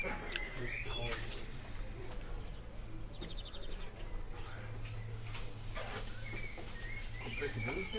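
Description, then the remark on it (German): Birds call and chirp outdoors in short scattered bursts, with a quick trill partway through, over a steady low background hum and faint indistinct voices. “Man kann einfach mal die Fresse halten und die Vögel zuhören, genau.”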